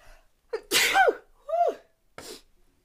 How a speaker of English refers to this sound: I gotta sneeze.